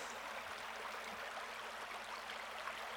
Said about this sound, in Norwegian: Nei, den lille fossen er der fordi hele Hovindbekken har gjort et comeback. I mange, mange år lå den nedgravd og glemt i rør under Oslo øst.